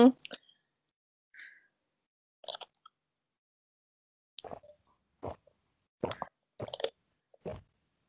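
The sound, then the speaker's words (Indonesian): Someone drinks a fizzy soda, with a series of wet gulps and sharp mouth clicks spaced irregularly, loud against near silence and no talking. “kedengeran ya gue minum? Kedengeran lah.”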